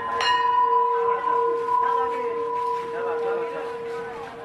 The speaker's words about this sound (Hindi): school की घंटी बजी और कई बच्चे भागते हुए अपने क्लास के अंदर घुस गए